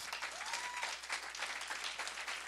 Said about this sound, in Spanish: Dele un fuerte aplauso a los pastores.